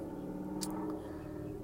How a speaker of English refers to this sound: Sorry if, if you hear anything in the background. I'm in my car right now, and there's somebody driving by with a loud car.